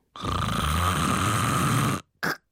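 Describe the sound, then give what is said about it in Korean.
A voice imitates a brother-in-law's snoring: one long, rough, rasping snore lasting about two seconds, then a sudden stop, silence, and a short choked snort, like breathing cut off by sleep apnea. “근데 코만 골면 괜찮은데 코 골다가 갑자기 그래. 무호흡증 와서”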